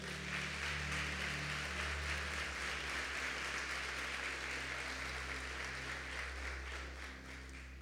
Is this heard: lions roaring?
no